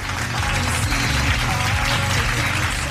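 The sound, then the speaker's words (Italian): An audience applauds steadily for about three seconds, a dense, even wash of many hands clapping at a constant loud level without letting up. “personaggi eh, successivi come Piero Angela per esempio di cui si è parlato tanto questi giorni proprio perché come sapete è scomparso pochi giorni fa e noi peraltro visto che ci siamo siamo qua gli famo un bel applauso”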